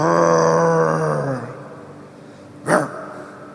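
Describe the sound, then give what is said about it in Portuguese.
A human voice imitates a menacing, growling sheep likened to a pitbull: a long, low, rough bleat that sags downward in pitch, then after a brief pause a single short, harsh snarling burst. “Eu não consigo imaginar uma ovelha pitbull.”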